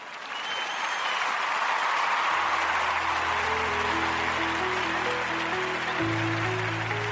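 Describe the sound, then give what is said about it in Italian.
A short applause sound effect: a steady, loud burst of crowd clapping, with a short closing-theme jingle of stepped tones starting partway through and playing under the clapping. “Direi che con questo possiamo andare in applausini e sigla finale.”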